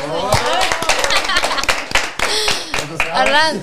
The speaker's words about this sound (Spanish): aplauso.